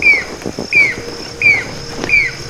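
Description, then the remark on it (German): A Jacobin (pied) cuckoo in India calls four times in steady succession, each shrill, piercing note clear, with faint background chatter from other birds. “Indien ist jetzt nicht äh, Sachsen-Anhalt oder Bayern oder so, das ist schon eher subkontinental, also ein riesiges Gebiet und da marodiert der Kubiner-Kuckuck und ist dann auch zu hören, natürlich mit seiner durchdringenden Stimme.”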